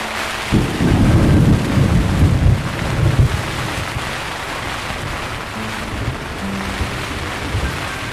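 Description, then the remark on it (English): A heavy rumble of thunder rolls in loud, then fades into a steady wash of rain and gusting wind that continues throughout, with no voices, during a storm on Horn Island in the Gulf. “The weather has turned on us. It's trying to shrug us off the island like so many gnats.”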